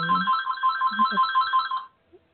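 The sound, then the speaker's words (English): A phone ringtone goes off in the background of a recorded conversation, playing a bright, repeating electronic melody for about two seconds, fairly prominent, with a low murmur of voices underneath before it cuts off. “The phone's going off in the background.”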